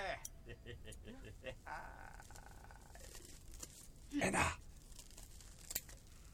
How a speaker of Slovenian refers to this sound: Pustite škarje, pustite brke, nikar ne režite.